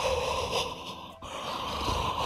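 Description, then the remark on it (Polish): A person lets out a drawn-out, breathy fake yawn, a long airy exhalation with a brief catch midway, filling the short moment without any talking. “Nie działa, udawane ziewanie, nie jest skuteczne.”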